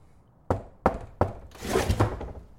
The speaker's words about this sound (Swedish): Vi kanske ska knacka? Vadå knacka? Ja, alltså knacka på luckan.